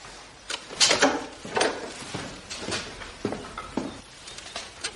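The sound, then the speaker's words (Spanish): A woman opens a door, with a series of short knocks, clatters and scrapes of wood spread over a few seconds. Nobody speaks. “El arcipreste da unas palmas y la señora abre una puerta”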